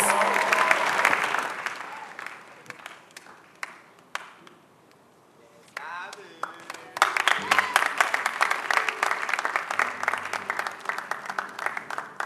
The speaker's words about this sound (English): Give the Lord a resounding clap and appreciate Him for all these powerful testimonies.